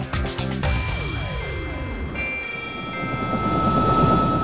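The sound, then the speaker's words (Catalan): A helicopter used for aerial work, from the small airport of La Seu d'Urgell in Catalonia, drones steadily, its rotor and engine making a continuous loud whir with a rhythmic chop beneath it and a rising high-pitched whine; no one speaks. “Des del petit aeroport de la Seu d'Urgell, Elitrans Pirinès s'ha convertit en un referent europeu dels treballs aèris amb helicòpter.”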